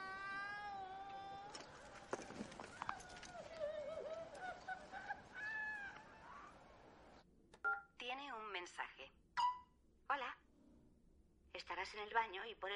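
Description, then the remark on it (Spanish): A telephone rings with steady electronic tones through a loud, cluttered wash of a dying woman's wailing screams for several seconds, then it cuts out and a person speaks in the quieter remainder. “no oyes el teléfono.”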